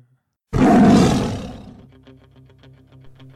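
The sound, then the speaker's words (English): A single loud tiger roar sound effect bursts in suddenly, introducing the Tiger Droppings Posts of the Week segment, rumbles for about a second and fades away, leaving a quieter rhythmic musical backing. No one speaks. “I saw a tiger.”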